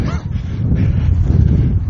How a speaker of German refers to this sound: Es gibt ganz schön Wind. Vielleicht gehen dann die Wolken jetzt endlich mal weg.